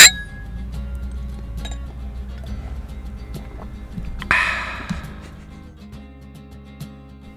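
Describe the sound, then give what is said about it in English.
Beer glasses clink together in a toast, bright: a quick chime at the start, then a louder rattling clink midway, over a low steady background hum with no talking. “But with that, I still get to cheers and drink beer, so I'm going to do that.”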